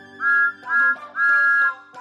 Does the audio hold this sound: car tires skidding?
no